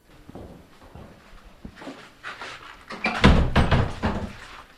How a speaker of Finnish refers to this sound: Suljetaan Pettilän koulun ovi ja tullaan vielä hetkeksi tähän, tähän pihalle.